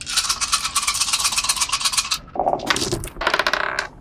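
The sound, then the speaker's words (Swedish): Dice rattle steadily for about two seconds, then land in a few sharp, bright clacks and a short skittering roll across a hard table, rolled for a fight in a game. No one speaks. “Så du slår ett slag för slåss.”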